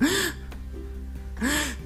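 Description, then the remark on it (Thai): A voice imitates two sharp, harsh gasping breaths, as of a person who has suddenly collapsed unconscious after the heart has stopped, one at the start and another after a pause of about a second, loud, with a strained rising pitch in each gasp. “อยู่ๆแบบวูบไป นอนไม่รู้เรื่องหายใจเฮือกแบบ”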